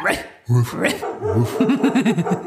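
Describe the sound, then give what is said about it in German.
A dog barks: a sharp bark or two, then a quick run of high, yelping yips, loud and lively over a couple of seconds. “wir wollen ein bisschen Hundegebell, so nette Hunde.”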